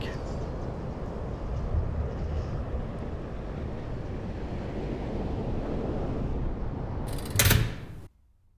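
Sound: howling wind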